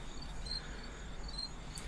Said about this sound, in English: Bro, I'm gonna beat the fuck out of these crickets, dude.